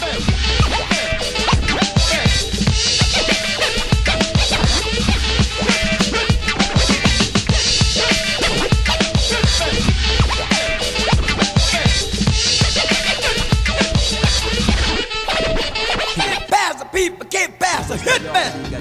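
A loud, dense funk track with a driving, punchy beat and busy, scratchy rhythmic texture runs steadily for most of the stretch, then thins out and breaks up near the end.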